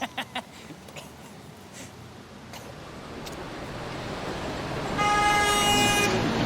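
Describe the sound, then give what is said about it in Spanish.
A car approaches with a swelling rush of engine and road noise, then blasts a steady, loud horn for about a second near the end as it passes. “Ojo el auto.”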